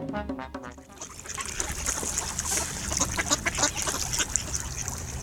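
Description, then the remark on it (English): A group of ducks quacks busily and repeatedly at a pond as oranges are thrown to them, with nasal calls overlapping amid splashing and lapping water. No one speaks. “Throwing oranges to the ducks.”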